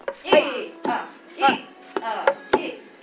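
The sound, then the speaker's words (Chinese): Heavy wooden thuds strike in a steady beat, about five blows across a few seconds, as cooked glutinous rice is pounded hard in a wooden mortar by people working in pairs to make mochi, with people shouting along between the strikes. “煮熟的糯米放到木臼之后呢，那么接下来啊，这个两两一组，要非常用力的捣麻糬。”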